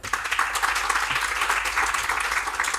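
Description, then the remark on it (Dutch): A crowd applauds steadily to welcome a guest, a dense wash of many hands clapping at once, sustained and fairly loud throughout with no voices standing out. “Maar ik wil in ieder geval een warm welkomstapplaus”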